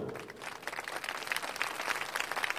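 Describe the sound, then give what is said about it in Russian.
An audience applauds steadily as a performer, Madame Stella, runs to the tank and bows before her dive. Many hands clap in a dense, crackling wash that stays fairly even throughout, moderately loud, with no voices rising above it. “На широкой лестнице, ведущей на террасу, Появилась маленькая фигурка, быстро пробежала к резервуару и поклонилась аплодирующей публике.”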